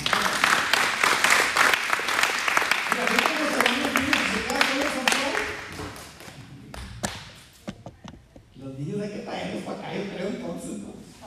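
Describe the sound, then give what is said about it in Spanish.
A church audience bursts into loud, dense applause welcoming newcomers, filling the first half, thinning to scattered claps as voices talk and call out over it, then a single voice speaks. “¿Por qué no dan un fuerte aplauso?”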